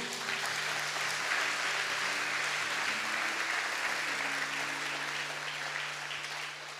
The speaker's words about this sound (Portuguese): Amém, igreja? Pode dar um salve de palmas para Jesus.